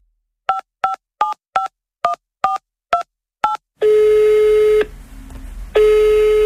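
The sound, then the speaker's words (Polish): Eight quick, evenly spaced touch-tone beeps as a number is dialed, followed by a steady low ringback tone that pauses briefly and resumes. No one speaks. “Dzwonimy więc.”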